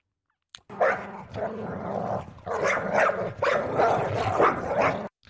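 A dog barks and growls in close, sustained bursts, with a few short pauses between loud, rough vocal stretches, recorded near the microphone.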